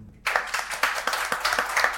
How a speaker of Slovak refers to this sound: venujte jej prosím potlesk.